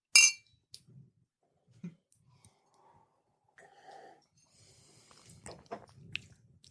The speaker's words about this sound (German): einmal den Long Island Ice. Oh Gott, ich werde das auch tun. Lass uns anstoßen kurz.